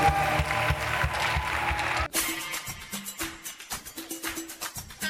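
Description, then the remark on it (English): An audience claps in praise in steady rhythm, many hands striking together in a loud, even beat over live music, following a dense burst of music and crowd noise. “Somebody come and clap your hands and praise.”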